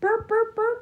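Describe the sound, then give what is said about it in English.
A voice mimics an oriole singing: three short, tonal, evenly spaced whistle-like notes at a steady pitch, fairly loud, with nothing else in the background. “That's a bird singing.”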